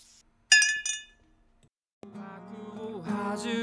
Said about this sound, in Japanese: いやー、今日も頑張ったそんな時はこれだよね。ああ。牛乳で乾杯。